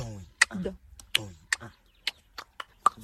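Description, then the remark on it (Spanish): A man makes sharp clicking sounds with his mouth, about eight crisp clicks in an uneven, trotting rhythm, with a brief murmur of voice at the start. “Parece ¿eh? que están con dos cocos ahí. No, no, no, es un señor con la boca.”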